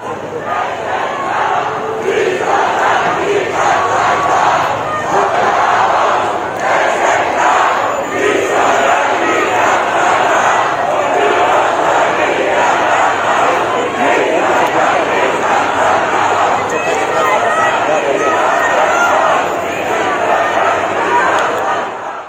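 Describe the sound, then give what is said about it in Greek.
A large crowd boos and jeers the Prime Minister continuously, a dense wall of angry voices with rising shouts and occasional louder bursts, sustained without pause for over twenty seconds. “αλλά ήταν ένα θέμα που συζητήθηκε χθε εκτενώς, ε, τα γιουχαρίσματα στον Πρωθυπουργό, τα ακούσατε πριν από λίγο”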